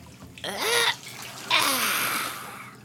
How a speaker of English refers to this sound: He splished, then he splashed, as Blue helped scrub all the mud off little Oogla Boogla.